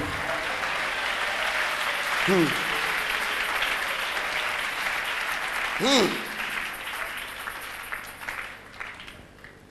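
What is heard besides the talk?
audience clapping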